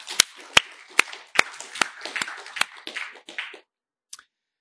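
A small audience applauds for about three and a half seconds, sharp individual claps standing out over a dense patter, then it stops abruptly with a couple of stray claps after a short pause.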